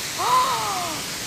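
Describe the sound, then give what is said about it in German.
A steady, broad rush of falling water from the El Nicho waterfalls in Cuba fills the background, and a short drawn-out bird-like call rises and fades over it partway through. “wenn du denkst, wie viel Liter in jeder Sekunde da herunterschießen.”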